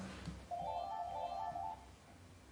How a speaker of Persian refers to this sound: تلفن زنگ میزنه تلفن چی میگه این وسط تلفن رو نظرتون بپیچم یا نپیچم